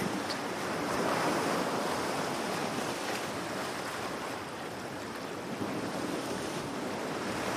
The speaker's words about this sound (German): In der Ferne erkennst du ein türkisblaues Meer. Du hörst das Rauschen der Wellen kannst das Salz in der Luft beinahe schmecken.